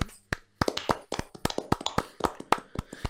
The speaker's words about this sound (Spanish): 10 añitos. una, un aplauso para Instagram.